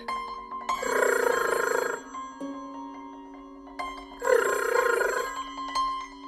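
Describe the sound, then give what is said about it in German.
A telephone bell rings twice in loud, shrill bursts of about a second each, separated by a pause, with a steady background tone lingering between rings and no voices. “Wenn der Apparat schrillt, ruft, stehe ich manchmal noch auf mit einer unsinnigen Hoffnung, aber dann sage ich Hallo mit einer verstellten, tieferen Stimme, weil am anderen Ende immer jemand ist, den ich gerade nicht sprechen will oder kann.”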